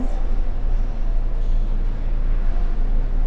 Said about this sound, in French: C'est un de mes favoris. il, y a, juste ce qu'il faut de réverbération, juste ce qu'il faut de résonance, et puis c'est une sorte de fenêtre. L'accès au parking, c'est un c'est une sorte de, de, zone où on n'entend rien d'autre